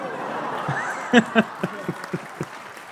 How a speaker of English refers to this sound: I'm just hearing all this applause, and it's just uh, stop, please. Just stop.